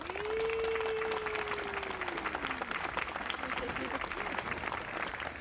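A crowd applauds steadily and loudly for several seconds, a dense wash of clapping, with a long sustained whoop sliding downward in pitch near the start.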